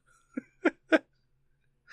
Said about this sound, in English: Uh, I didn't fart. It wasn't me. I swear. It wasn't me.